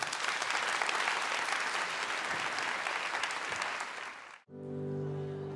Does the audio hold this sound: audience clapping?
yes